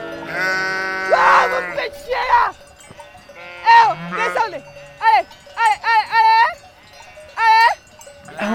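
A flock of ewes bleating, several wavering calls overlapping and repeating in quick bursts, with a faint steady ringing tone like a bell underneath.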